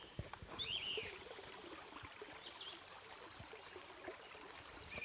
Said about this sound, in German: Hört man, das ist ein Bach.